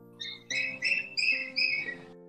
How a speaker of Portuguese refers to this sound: Tem alguém se manifestando aí. É, é um passarinho. É passarinho. É que eu, vocês esqueceram que eu tô no jardim da, do meu castelo.